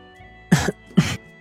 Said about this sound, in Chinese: 楚留臣淡淡的道，低低的咳嗽两声。